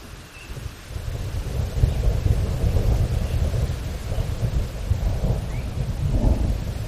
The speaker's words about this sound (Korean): 천둥 소리가 울리기 시작하자 커다란 공포에 휩싸였다. 폭풍우를 무서워해서가 아니라 폭풍우가 너무 갑자기 시작되어서 초자연적인 현상처럼 보였기 때문이었다.